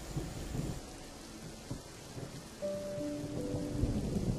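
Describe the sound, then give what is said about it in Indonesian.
Steady rain hisses continuously, with low rumbling underneath and a few louder patters; partway through, a faint sustained tone joins the downpour, and no one speaks. “Hujan hanya hanya membuatku menunggu lebih lama lagi.”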